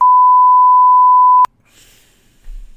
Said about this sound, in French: Bon, je suis pas là pour l'instant. vais laisser votre sujet après le bip sonore.